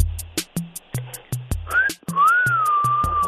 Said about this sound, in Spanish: A ver, échale un chiflidito de esos cuando ves pasar a una mujer bonita.